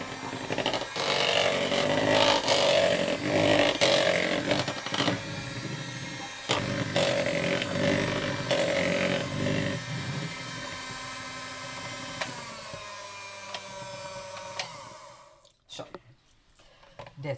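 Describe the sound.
An electric hand mixer whirs steadily for about fifteen seconds, its motor hum wavering as it churns thick almond cake batter, mixing in almond flour and lemon zest, with a brief voice heard over it before the motor cuts off abruptly.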